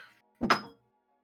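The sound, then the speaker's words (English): A single dull thud as a thrown bottle lands on carpet, a short muffled impact with a low body and brief bright edge, then silence; no shattering follows. “I wanted it to break so bad. Me too. I was waiting for a shatter note.”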